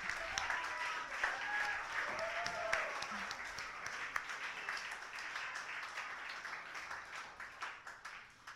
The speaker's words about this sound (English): Applaud that poet.